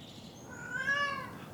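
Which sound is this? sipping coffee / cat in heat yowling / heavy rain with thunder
cat in heat yowling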